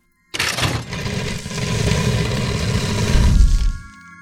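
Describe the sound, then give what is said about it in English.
A secret lever is pulled with a sudden mechanical clunk, giving way to a long, heavy grinding rumble as a fireplace slides aside to reveal a hidden staircase, scraping steadily for about three seconds before stopping abruptly. “Secret lever, pull, fireplace, slide away, hidden staircase, reveal later.”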